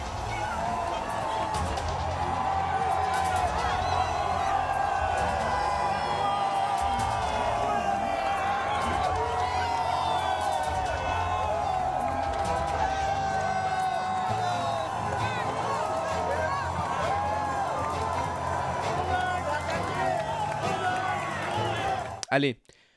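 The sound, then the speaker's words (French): A large crowd cheers and roars steadily in celebration as Emmanuel Macron is announced re-elected President of France with 58.2% of the vote against Marine Le Pen. Overlapping shouts and high whoops rise above the dense, loud din, which continues without a break and then cuts off abruptly at the end. “Et vous voyez sur ces images l'explosion de joie”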